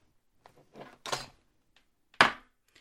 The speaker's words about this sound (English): I uh, thought my gavel was within reach. Well, since you're a judge, if you knock, it counts. Here it is.